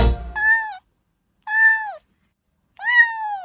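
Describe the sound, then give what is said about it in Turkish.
A jungle cat, an endangered wild cat, calls three times, each a short, harsh, meow-like cry with gaps of about a second between them, loud, after a brief low rumble at the start. “Biz bugün nesli tükenmekte olan bir kediden saz kedisinden söz edelim.”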